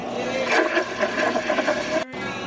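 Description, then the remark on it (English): An electric blender runs on setting four, blending a drink in a cold foam pitcher, with a loud, dense whirring roar and slight pulsing in its tone, cutting out abruptly for a split second near the end before starting again. “Blend that on four.”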